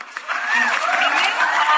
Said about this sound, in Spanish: pero quiero que aplaudan, quiero que aplaudan cuando Quiero que hagan esa, eh, ándale, los, los, de, los que están en producción.